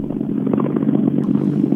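Rally car engines roar steadily and loudly, a dense throaty drone with rattling grit, as two cars go by one after the other on an icy road. No voices are heard.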